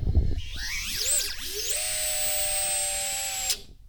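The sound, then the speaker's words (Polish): Small electric drone motors, running without propellers, spin up with rising whines that sweep in pitch, then settle into a steady high-pitched tonal hum before cutting off abruptly near the end. “On jest na tyle mocny, że spokojnie, bez śmigieł, przepraszam za mikrofon, Tu widać, jaka to jest moc.”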